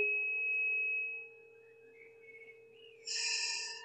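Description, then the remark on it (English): Birds sing in the background, with faint warbling whistles that swell into a brighter, louder burst of song near the end. No one speaks. “I hear the birds in the background, and uh, I think I think um, just taking comfort from nature is is really helpful to us.”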